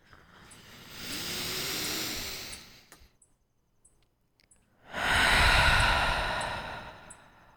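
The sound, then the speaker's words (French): One long, deep breath drawn in, a brief pause, then a full, airy exhale. Both are fairly loud, with no talking. “On va reprendre une grande respiration tout ensemble, OK?”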